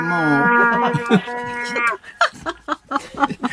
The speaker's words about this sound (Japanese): 一曲トランペットの演奏をあの聞かせてくれたら、それでね、ええ、それで十分。